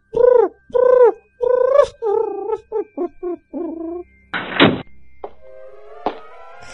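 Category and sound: bird, pigeon cooing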